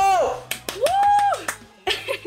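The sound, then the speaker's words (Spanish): A short burst of clapping on the radio programme La Nave, about six sharp, unevenly spaced claps, mixed with a sliding high-pitched vocal whoop and some voices underneath. “Por favor, un aplauso.”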